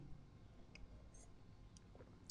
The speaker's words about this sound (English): Did you hear that? I actually smacked my teeth. Uh, with my uh, with, with my cup, which is really uncool. This is my Avengers cup.